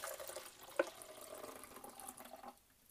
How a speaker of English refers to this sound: Okay, so now the pre-soak's done. It's been a couple of minutes. We're going to dump that out back into the jug.